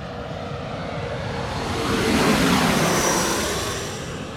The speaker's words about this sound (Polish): Za chwilę znów mnie nie będzie słychać, bo przeleci samolot. Mm, e, w tej chwili znów widzę United z e, San Francisco.